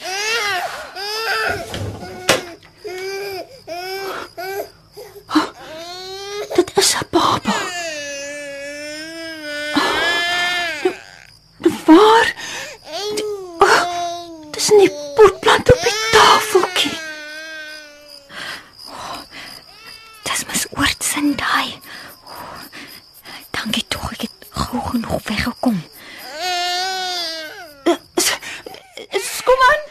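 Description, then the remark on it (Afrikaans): A baby that someone has put down on a porch table cries loudly in long, wavering wails, pausing for breath between bursts, with sharp clattering noises breaking in now and then. “iemand het 'n baba op die stoeptafel neergesit.”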